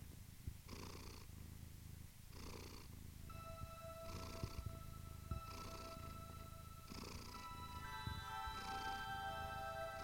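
A cat purrs steadily, its low rumble swelling in regular breathy pulses about every second and a half, while faint sustained tones drift in underneath partway through.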